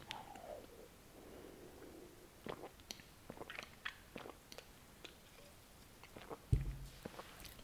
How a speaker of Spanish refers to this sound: A ver, voy a pegar un trago de esto.